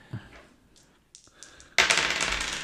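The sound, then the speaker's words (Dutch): Scattered light clicks give way to a loud, clattering rattle of two dice tumbling and bouncing across a hard tabletop, landing on a two and a four, with no talking. “Dan vliegen de dobbelstenen eh, over tafel.”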